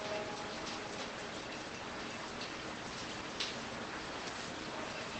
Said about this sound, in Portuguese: Olha que gostoso, acabou de cair uma chuva aqui.